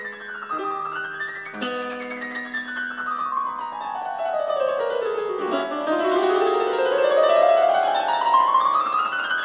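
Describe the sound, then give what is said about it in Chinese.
A solo piano plays Liszt's virtuoso showpiece 'The Bell' (La Campanella), performed by Lang Lang: struck chords give way to rapid runs sweeping down and then climbing back up, bright and growing louder, with no voices. “你现在听到的就是李斯特为了炫耀自己的技巧所做的钢琴曲《钟》。”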